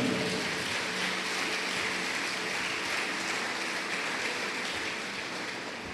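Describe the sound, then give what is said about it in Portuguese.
An audience applauds God during a church sermon, a dense, steady wash of many hands clapping that holds at a strong level throughout, thinning slightly near the end, with no one speaking over it. “Se você entende, diga glória a Deus, aplaude esse Deus maravilhoso, soberano.”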